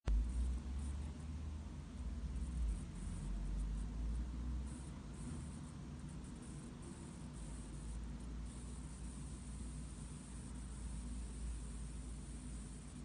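A steady electrical hum from an electronic device, a low buzzing drone layered with a constant hiss, holding the same level for the whole stretch with no voices.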